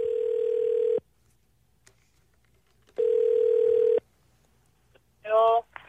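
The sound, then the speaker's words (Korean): A telephone line, as a radio show host calls a listener, sounds two steady, mid-pitched one-second tones separated by a pause, then a short, warbling burst of stacked electronic tones. No one speaks. “4745님 전화 한번 걸어보겠습니다.”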